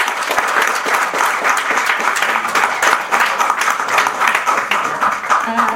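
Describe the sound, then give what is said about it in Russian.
Loud, sustained applause from a crowd for a winner at a journalism contest award ceremony, dense overlapping claps forming a steady roar that holds at an even level for several seconds with no pauses. “полный привод, бурные аплодисменты.”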